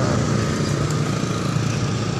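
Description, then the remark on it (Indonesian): A motorcycle engine drones loudly and steadily at a T-junction as a person rides it, a rough, constant buzzing rumble that holds at the same level throughout without fading, with no voices. “sudah ada orang nilong seliwet ini naik motor ini ada satpam”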